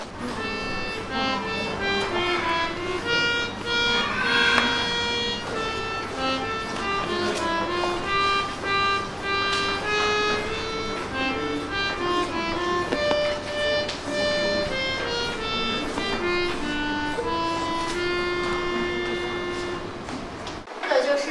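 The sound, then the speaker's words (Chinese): A small tabletop reed organ, its bellows pumped by one of the player's hands while the other plays the keyboard, plays a steady melody with sustained, buzzy reedy chords, the notes shifting one after another over a continuous wheezy drone, moderately loud throughout with no talking. “接下来呢，我们可以来听一下这台琴的音色。”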